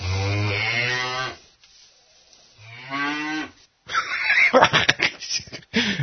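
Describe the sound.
A cow moos twice, each a long, loud, drawn-out low call separated by a short pause, followed by a burst of noisy laughter-like sound and clatter.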